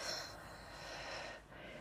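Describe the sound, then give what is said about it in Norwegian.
A long, airy exhale flows out steadily and softly during a guided breathing exercise, with a brief dip near the end before the breath trails on. No one speaks. “Kjenn at energien sprer seg i kroppen, og pust ut.”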